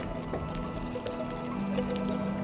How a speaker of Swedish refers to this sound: Jag kan höra deras insektslika ljud. Knastrande, ekande. De tar sig långsamt genom en skog.